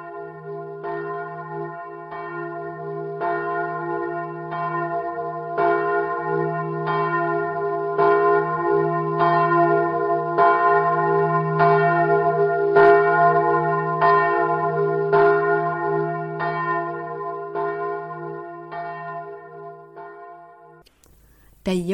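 A church bell rings steadily, its strikes evenly spaced over a deep, lingering hum. The peal is loud, and it stops abruptly at the end.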